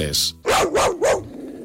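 A dog barks three times in quick succession, loud, after a brief tonal sound at the start.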